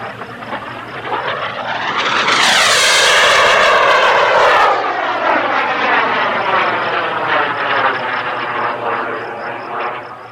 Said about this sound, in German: Ja, was du da gehört hast, war ein Rekordversuch. Ganz offiziell wurde hier die schnellste je mit einem Modellflugzeug geflogene Geschwindigkeit gemessen. Und 749 ist mal echt eine Ansage.